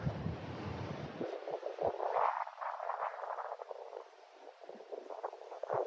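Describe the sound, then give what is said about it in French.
Many wind turbines standing all around whir steadily in strong wind, a continuous rushing whoosh with a deep rumble at first that thins out, rising and falling slightly with gusts. No one speaks. “Ça fait un bruit. On a l'impression d'être euh, un mélange entre un aéroport et une autoroute, ah, si vous voulez entendre.”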